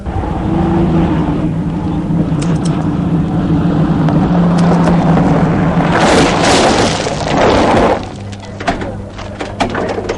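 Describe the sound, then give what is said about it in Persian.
The rough, struggling engine of a broken-down car that needs major repair drones loudly with a steady low hum, erupting into harsh clattering bursts before dropping to a quieter, uneven idle near the end. “منم شرمنده ماشین خراب احتیاج به تعمیر اساسی داره”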